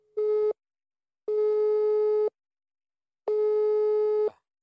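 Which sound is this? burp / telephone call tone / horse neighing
telephone call tone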